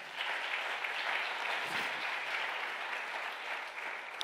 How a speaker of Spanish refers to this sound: Denle un aplauso fuerte a papá.